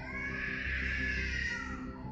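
A child wails continuously outside, a high, strained, sustained cry with no other voices over it.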